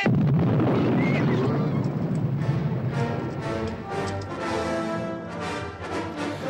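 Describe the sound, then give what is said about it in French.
A heavy cannon shot, the first of a battle that lasted 13 days, fired as Travis's reply to Santana's ultimatum, booms at the start, its deep rumble rolling on for several seconds and blending into a tonal, music-like swell as it fades. “Et c'était la réponse de Travis à l'ultimatum de Santana, le premier coup de feu, coup de canon plutôt d'une bataille qui allait durer 13 jours.”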